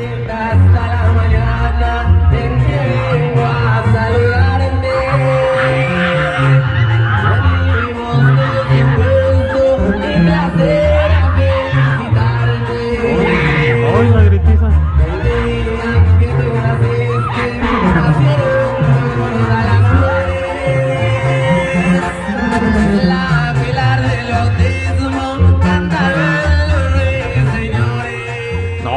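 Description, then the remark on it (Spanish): A loud, dense crowd of guests at a quinceañera party screaming and shouting together as a singer unexpectedly walks in singing, continuous for the whole stretch, with music and singing mixed in underneath. “hombre, hoy nomás la gritiza querían todos salir, pensaron que los, iban a balasear ahí.”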